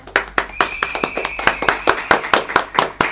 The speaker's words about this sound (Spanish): Muchas gracias. Unos fuertes aplausos.